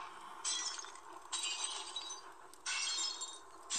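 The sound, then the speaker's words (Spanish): The glass windows of a house shatter in several loud, bright bursts, each crash followed by a tinkling spray of falling shards, repeating about four times with no voices present. “Entonces, los vidrios de su casa empezaron a tronar.”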